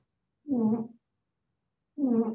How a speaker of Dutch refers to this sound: Als je op de achtergrond bij mij iets hoort, dan kan het zijn dat een van mijn konijnen nu ligt te snurken. Oh, ik denk dat dat het is, ja. Ja, geweldig. Nou, snurkend ja. konijn. Konijn in de uitzending, geweldig.